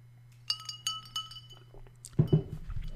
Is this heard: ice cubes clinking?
yes